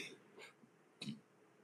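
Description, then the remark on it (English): A single short, low belch, preceded by a couple of faint breathy sounds, with no talking in the quiet moments around it. “I just belched.”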